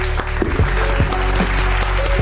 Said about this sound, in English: Now, let's give her a major round of applause, if you may.